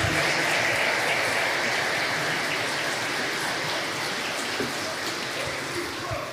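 A church audience applauds to honor the life of Jesus, a dense, steady wash of many hands clapping together that holds at an even loudness for several seconds without a break.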